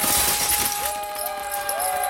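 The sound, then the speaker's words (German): A burst of metallic clattering and crashing, loud, with bright ringing tones that sweep and fade over a couple of seconds, as weapons clatter and a black knight falls from his saddle after a charge with lances. “Federn flogen, Waffen schepperten und der schwarze Ritter fiel aus dem Sattel und blieb liegen.”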